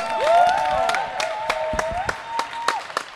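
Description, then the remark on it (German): A crowd applauds with dense, steady clapping, punctuated by sharper individual claps, while a few cheers and whistle-like voices rise and fall over the top, honouring the host at a poetry slam. “Riesengroßen 27.000 Punkte Applaus”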